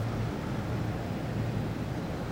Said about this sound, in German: ein dumpfes, allgegenwärtiges Rauschen. Akustisches Abfallprodukt von Fabrikschloten, Kühlaggregaten, Belüftungsanlagen. Von Allen Ginsberg in seinem Gedicht Howl treffend charakterisiert.